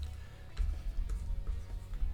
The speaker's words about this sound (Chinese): 我现在这边有纸跟笔，所以大家听到有点纸的声音。OK，我要写给艾玛看。